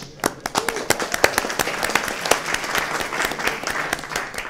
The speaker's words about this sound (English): and, and, my wife, but you can hold the applause for that.